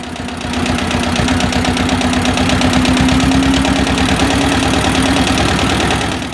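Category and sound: vehicle, tractor engine running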